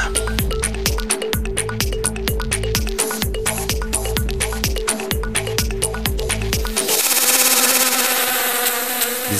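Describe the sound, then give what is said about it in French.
A loud bee buzz sound effect, pulsing in a quick steady rhythm for several seconds before settling into one continuous drone, introducing La Minute qui bourdonne, a segment presented by the La Ruche crowdfunding platform. No one speaks. “Biz, biz, biz, biz, biz. C'est la minute qui bourdonne avec nos amis de la ruche.”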